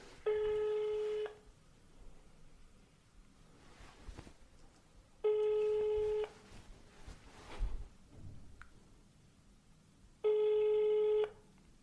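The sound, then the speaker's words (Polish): A phone ringback tone played over a speakerphone, three steady electronic rings of about a second each, separated by pauses of faint room noise. “Uwaga, głośno mówiący.”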